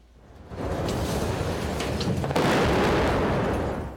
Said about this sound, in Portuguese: Após o estrondo, o chão tremeu.